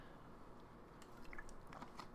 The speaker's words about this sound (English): I'm going to take another drink of water. Very hot. My neck is on fire.